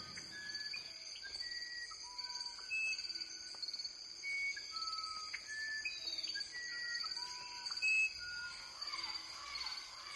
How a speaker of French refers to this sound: le chant des cigales, puis, dit Krauss, deux oiseaux très chantants, le troglodyte ararda et l'ibigeau gris, accompagnés de perroquets